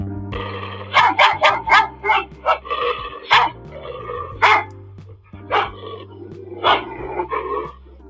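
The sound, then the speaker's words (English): Several dogs bark loudly in rapid, overlapping bursts, a dozen or so sharp barks over about seven seconds, with a low steady hum underneath. “like some wild pit bull dogs.”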